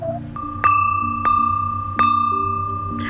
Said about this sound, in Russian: Сегодня у нас разговор пойдет о фарфоре – Вид керамики, непроницаемый для воды и газа, в тонком слое просвечивается, при легком ударе деревянной палочкой издает характерный высокий чистый звук. Вот такой, например.